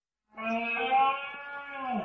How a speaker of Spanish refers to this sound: Este es el sonido de la berrea del ciervo.